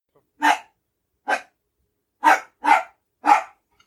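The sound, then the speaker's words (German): A dog in a hallway barks five times in short, sharp bursts with uneven gaps, two coming close together near the end; the barks are fairly loud, with no talking. “sag mal, hast du einen Hund dabei?”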